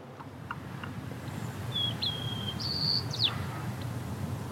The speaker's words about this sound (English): And that sounds like a maybe juvenile white crowned sparrow in the background practicing a song.